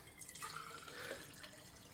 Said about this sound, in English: And now I'm going to use said tumbler. So we pour some water in it.